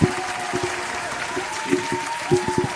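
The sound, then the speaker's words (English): A crowd claps steadily and densely, the applause loud and close with scattered sharp hand claps standing out, continuing throughout with a faint voice murmuring beneath. “Everybody, we're gonna give uh, her a special applause”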